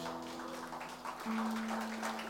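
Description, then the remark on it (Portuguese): A church audience stands and claps steadily together in the name of Jesus, a dense wash of applause over a sustained low keyboard tone that shifts pitch slightly partway through. “Fique de pé e dê uma salva de palmas em nome de Jesus.”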